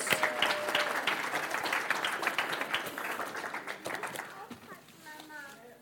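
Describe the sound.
An audience applauds with dense, steady clapping that fades gradually toward the end, with a few voices briefly audible as it dies down.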